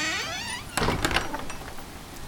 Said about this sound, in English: The door shuts behind you.